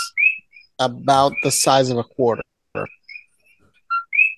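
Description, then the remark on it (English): Short, bright two-note coqui frog chirps repeat every second or so, clear and fairly loud, while a person talks briefly between and over them. “even Hawaii has a native population of kokis, which if you let me share screen, I can show you how it sounds”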